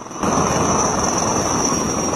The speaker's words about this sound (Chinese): 下午一点，直十九、直二零等多型直升机依次起飞升空，奔赴各自目标空域，展开直升机野外场地起降训练。野外场地起降要求直升机准确降落在十五乘十五米的空地上，飞行员需要准确判断风向与风速，不断调整直升机飞行姿态，建立正确的下滑航线，才能精准着陆。